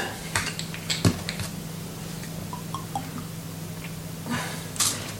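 Quiet kitchen sounds of a vinaigrette of cider vinegar and a drop of olive oil being mixed: scattered soft clicks, drips and small squishy taps, with a faint steady hum underneath and no talking.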